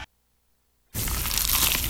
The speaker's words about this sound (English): Is that the sound of an ooey gooey, cheesy, crunchy slice of PIZZA? Obviously.